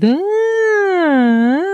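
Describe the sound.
A woman's voice imitates the way she cried as a very weepy little girl: a siren-like wailing cry, one loud, sustained, nasal tone that slowly sinks in pitch and then swoops back up, held steadily for almost two seconds with no words.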